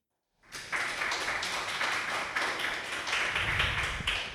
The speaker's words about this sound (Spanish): Les pido un aplauso, por favor,